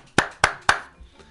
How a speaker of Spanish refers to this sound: Estoy tocando aquí, estoy haciendo palmas.